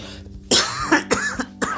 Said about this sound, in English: Sorry, I'm also smoking. Excuse the coughing.